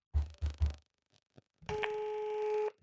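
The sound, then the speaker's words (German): A telephone ringing tone of an outgoing call to a guest sounds as one steady, loud, mid-pitched electronic tone lasting about a second, after three dull low thumps and a couple of faint clicks. “Es klingelt.”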